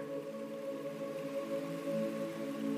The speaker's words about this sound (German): Das leise Plätschern ist einladend und ruhig. Du gehst bis auf den Steg und schaust in das klare Wasser.